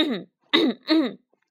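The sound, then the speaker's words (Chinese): The mayor of Hamelin in a told story clears his throat on seeing the crowd, in three quick, voiced rasps, the last two louder and close together, with no other talking around them. “市长看到这么多人，赶紧清了清嗓子”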